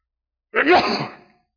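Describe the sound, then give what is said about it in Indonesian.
A single loud sneeze bursts out sharply and then trails off breathily over about a second, with silence before and after. “Alhamdulillah. Yahdikumullah”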